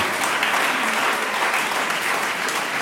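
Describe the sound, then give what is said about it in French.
Steady, dense applause from an audience on a radio quiz, applauding a question sent in by a listener from Roncherolles-sur-le-Vivier, Seine-Maritime; a continuous wash of many hands clapping at fairly loud level with no voices over it. “Sylvain Barcena, qu'on applaudit pour sa question, euh, à Roncherolles-sur-le-Vivier, en Seine-Maritime,”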